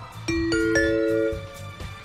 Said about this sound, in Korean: 딩동댕 선물 나간다는 겁니다.